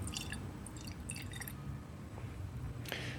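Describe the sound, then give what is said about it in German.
Whisky (Macmyra) pours from a bottle into a glass, the first pour from this bottle, with soft glugging drips and splashes, fairly quiet over a low background rumble, with no talking. “Jetzt kommt das leckere Geräusch. Ach nee, das ist nicht die, der erste Ausguss aus dieser Flasche.”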